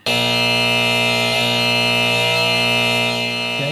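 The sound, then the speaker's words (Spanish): A harsh, continuous electronic buzzer drones steadily, loud and unbroken for several seconds: the alarm of an elevator whose door has been left open. “puede cerrar la puerta del ascensor que quedó abierta?”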